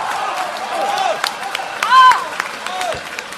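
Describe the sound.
A Peking opera audience at the Chang'an Grand Theatre in Beijing applauds at the end of Shi Yihong's performance, steady dense clapping while scattered voices shout and cheer over it, one loud rising cheer standing out midway through before the clapping carries on.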